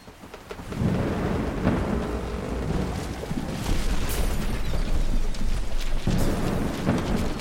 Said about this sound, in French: Hélas, une terrible tempête fit chavirer le bateau.